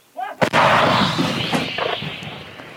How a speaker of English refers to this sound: All about increasing pressure on Russian lines as the counteroffensive looms and that crackle in the distance of small arms fire, Ukrainians trying to take down the drones being used to spot them.